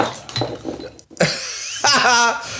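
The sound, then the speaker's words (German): An empty glass bottle gets knocked over: a few clinks and rattles, then a sharp knock and a brief ringing, rolling clatter, fairly loud, with a short burst of voiced sound near the end. “Nee, ich habe zum Glück nur die leere Flasche umgeworfen.”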